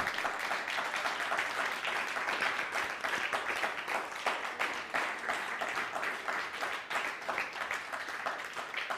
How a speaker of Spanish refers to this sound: Pues ahora sí, bien fuerte, bienvenidos, fuerte aplauso.